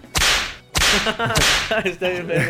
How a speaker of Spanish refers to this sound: vamos con el látigo, pon el látigo.